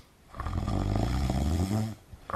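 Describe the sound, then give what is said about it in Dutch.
A single loud, drawn-out snore, a deep throaty rasp lasting about a second and a half before trailing off into quiet breathing, as Scrooge wakes mid-snore and sits up in his bed. “Toen hij midden in een buitensporig harde snurk ontwaakte en overeind ging zitten in zijn bed om zijn gedachten te verzamelen, hoefde Scrooge er niet aan herinnerd te worden dat de klok weer op het punt stond één te slaan.”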